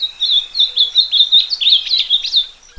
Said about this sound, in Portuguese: Ah, esse canto vai trazer saudade para muita gente. Você já ouviu alguma vez? É o canto do azulão, uma ave simbólica que chama atenção pela cor e pela beleza da voz.